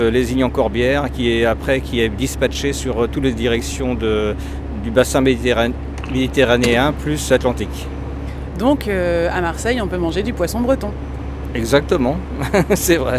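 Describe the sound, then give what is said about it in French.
A refrigerated truck's cooling unit, on the truck parked next to the speaker's and ready to leave very shortly, drones steadily nearby, a constant low mechanical hum that runs unbroken beneath two people chatting and briefly laughing. “Le bruit qu'on entend là, c'est le bruit du camion réfrigéré, quoi.”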